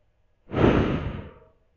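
A single slow, breathy exhale during a breathing exercise, rising quickly and tapering off over about a second, with no talking.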